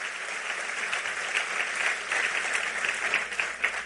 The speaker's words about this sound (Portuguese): Aplauda ele forte.